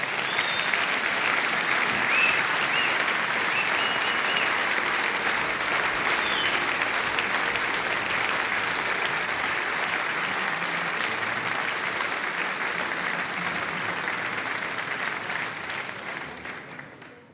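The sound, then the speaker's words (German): Sustained audience applause for the choir of the Junge Union Miesbach, a dense steady wash of many hands clapping at even loudness for most of the stretch before tapering off near the end. “Applaus für den Chor der Jungen Union Miesbach.”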